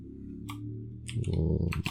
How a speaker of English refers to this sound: Sorry for the clicky clacky. Oh, I got a blue keyboard too.